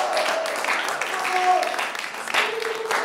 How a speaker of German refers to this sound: Gebt mal allen nochmal einen Applaus, gebt euch selber einen Applaus.